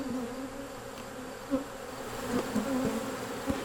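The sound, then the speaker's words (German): A steady drone of bees buzzing outdoors in West Virginia, several insects humming with rising and falling pitch as they move around, a few brief louder passes, no voices. “Draußen bei den Bienen reden sie nicht über Politik.”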